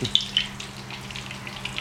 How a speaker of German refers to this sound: Jetzt brutzelt es aber wirklich, das Fett.